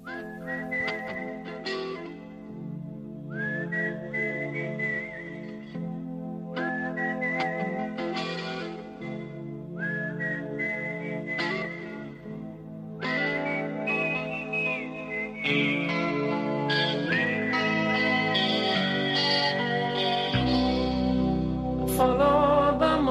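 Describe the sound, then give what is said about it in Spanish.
A song opens with a clear whistled melody, repeating short rising phrases over steady instrumental backing, before the band swells into a louder, fuller arrangement. “vamos a ir escuchando esta canción.”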